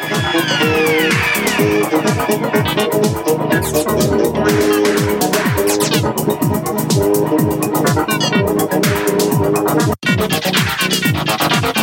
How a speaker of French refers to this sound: Le petit truc dans l'aigu, c'est toujours le basson baroque. En mode synthèse granulaire.